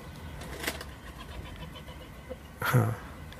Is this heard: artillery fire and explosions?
no